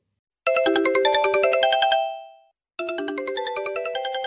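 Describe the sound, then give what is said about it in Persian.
Yunus's mobile phone ringtone plays a bright, rapid melodic pattern of tones, fades out briefly, then starts again loud, with no voices present. “یعقوب بلند شد و خاک شلوارش را تکان موبایل یونس زنگ خورد”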